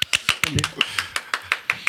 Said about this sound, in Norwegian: dette fortjener en kort og hektisk applaus.